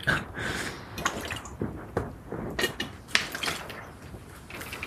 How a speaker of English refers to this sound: Sorry, I had to have a a sip of drink because my throat hurts.